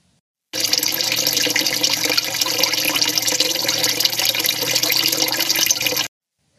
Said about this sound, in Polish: Jak się jest w środku, to słychać źródełko, które jest zaraz za ścianą. Oczywiście nagrałam wam, żebyście też coś z tego mieli. Posłuchajcie.